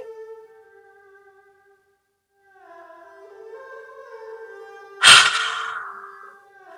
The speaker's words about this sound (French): Donc, on va commencer par la respiration et une expiration explosive avec le son ha. Inspirez.